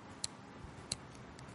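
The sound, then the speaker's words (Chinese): A mechanical dial on top of a camera flash clicks as it is turned to adjust the flash power, giving three crisp, high, faint ticks spaced evenly apart, plus a couple of softer ones in between, with no talking. “但是如果你有一个机械波轮在顶部，那你就可以盲调了啊，因为它每次调整的时候都会发出一个滴答声，大家可以听一下。”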